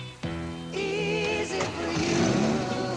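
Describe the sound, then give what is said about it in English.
A car engine cranks to life and then revs, its rising and falling drone loud, running steadily for a few seconds with no one talking, as a man gets a broken-down car started. “And for that great smelling guy who started my car, I get off at six.”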